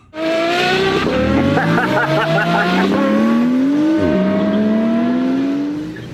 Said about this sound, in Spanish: Voy a echar gasolina aquí, carajo. Aquí traigo mi Ferrari. A todos quiero mandarles un saludo mientras estoy echando aquí este gasolina en mi Ferrari porque sé que me están grabando como nunca habían visto un carro Ferrari, miren.